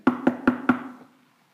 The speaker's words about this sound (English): And and then you heard that knock on the door. Yeah, immediately. The last amen.